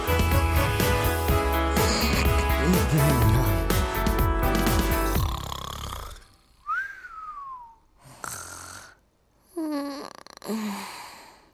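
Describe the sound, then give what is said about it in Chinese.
A busy pop song plays, then cuts out and gives way to comic snoring: a whistling exhale, then two loud, rough snorts spaced a couple of seconds apart. “在你的身边打呼打呼”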